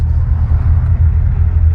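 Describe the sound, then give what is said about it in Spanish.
A car engine rumbles steadily, a deep, continuous drone of slow-moving street traffic held up by a traffic police officer, with no voices and no sharp revving. “unos 300 metros del punto donde el agente de la policía de tránsito se ha encargado de hacer que la fluidez del tráfico sea prácticamente cero.”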